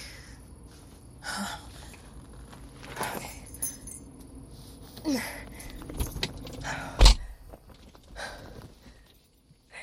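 Keys jangle in short bursts amid rustling movement and a few sharp clatters, with a low background rumble and no talking.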